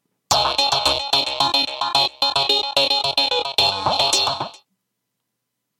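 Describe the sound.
A voice does an impression of a Baghdad strip club: about four seconds of loud, buzzy, high-pitched tones in choppy rhythmic bursts, then silence.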